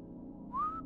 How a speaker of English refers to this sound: You could hear whistling across an otherwise silent night. No ghost gizmo needed to capture it.